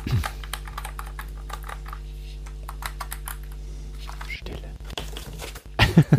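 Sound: typing on mechanical keyboard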